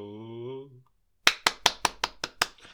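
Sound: hand clapping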